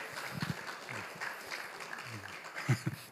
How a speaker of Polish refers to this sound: Super. Dajcie oklaski dla młodych zwłaszcza, tak, bo...